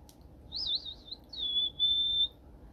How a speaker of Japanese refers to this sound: 前前歯がちょっと大き大きいまんま育ったんで前歯と前歯の間にちょっと隙間が空いててスキッパなのでそこから歯笛ができる